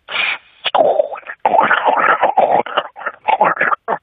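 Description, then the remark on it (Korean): A person uses their voice to imitate a sink drain gurgling when the drainage can't keep up with the incoming water, making loud, choppy bubbling and glugging bursts that stutter on and off for a few seconds. “그리고 이제 좀 배수가 유입수를 못 따라가는 어, 그런 어. 소리거든요.”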